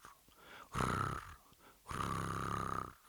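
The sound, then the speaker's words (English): A cat purrs in two long, rumbling pulses with a brief pause between them, fairly loud and with no one talking. “But eventually it becomes a cat's pairing, and you can hear it.”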